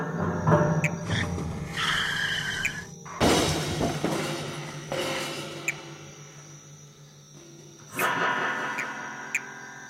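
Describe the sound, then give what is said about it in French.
Tires squeal briefly before a loud collision as a car crashes into a truck at night on a narrow road, lit only by the car's headlights, with crunching metal and shattering debris that fades out, followed by a second clattering impact near the end. “Seuls les phares de la voiture l'éclairent. Richard percute un camion.”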